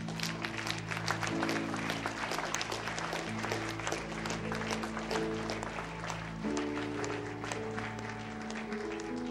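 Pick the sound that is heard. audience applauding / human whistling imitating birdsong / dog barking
audience applauding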